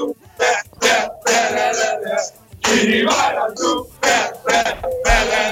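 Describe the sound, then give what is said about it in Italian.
An excited crowd of fans cheering and shouting in loud, repeated bursts, the yelling swelling and dropping away between short gaps. “Ecco come potete sentire eh. l'entusiasmo è alle stelle.”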